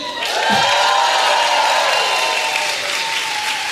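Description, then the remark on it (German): A live audience at the Grünspan bursts into loud, sustained applause and cheering, dense clapping with whoops and shouts rising above it, holding steady throughout. “Wie klingt das, wenn der Grünspan ausrastet?”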